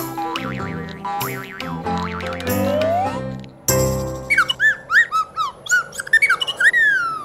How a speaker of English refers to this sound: They look like ants to me. Ants jumping on a trampoline.